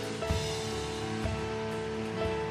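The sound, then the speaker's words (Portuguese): A large audience claps loudly and continuously for the name of Jesus, a dense wash of applause with sustained musical tones beneath it, steady throughout with no pause. “Vamos aplaudir bem alto o nome de Jesus.”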